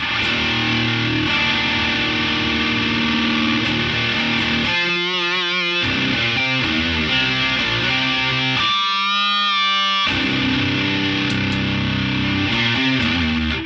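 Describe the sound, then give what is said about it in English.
Electric guitar through stacked fuzz and distortion pedals, a Silverback pedal into a Noble Screamer pedal, with thick saturated chords ringing loud with a buzzy, compressed edge, briefly thinning into wobbling single notes twice before the full fuzz returns. No voices. “I'd uh, I'd put the silverback into the noble screamer to make it a fuzz.”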